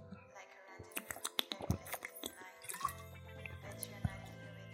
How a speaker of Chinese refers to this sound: 最后喝水的时候一定要用一点那个好一点的那个收音设备。然后就能听到那个喉咙里面吞咽的那种声音，就像那个什么 ASMR，不过好像 ASMR 也不让播。来，我喝一个水给你们听听看